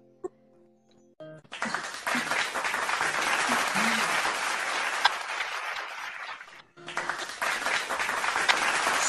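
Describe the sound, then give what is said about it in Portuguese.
Sustained applause from a group, a dense crackle of many hands clapping that starts after a brief tonal intro, pauses momentarily, then resumes, with faint voices and some laughter mixed in. “Palmas de verdade aí, quem quiser abrir o microfone e bater palma para ela.”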